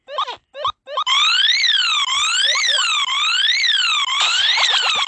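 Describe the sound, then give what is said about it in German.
A loud electronic alarm in a video game wails in a steady rising-and-falling sweep, preceded by a few short blips, sounding continuously with no talking over it. “Du hast wieder Alarmknopf.”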